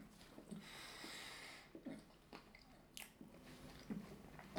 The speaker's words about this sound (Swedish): Men nu pratar jag med en eh, bakelse i munnen också. Det är ja. jävla snyggt det. God de där. Mm, den är jävligt god.